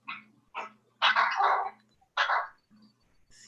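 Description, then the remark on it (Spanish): A dog barks several times in short, uneven bursts, a couple of louder yaps in the middle, with low background hum and no talking. “se oye un perro por ahí, ¿no?”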